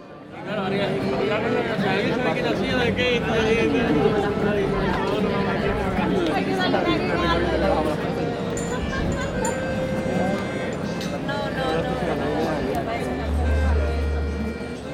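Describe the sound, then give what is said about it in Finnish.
A steady murmur of many overlapping voices from young and older people passing by on Rua Riego de Aqua, a busy central street in Korunja (Coruña), Galicia, northern Spain, at lunchtime, heard from a residence balcony. The tone is lively and cheerful, continuous throughout with a low rumble underneath. “Residenssini parvekkeelta näkyy keskuskadun vilinä, ohikulkevien nuorten ja vanhempien ihmisten iloinen puheensorina täyttää kadut.”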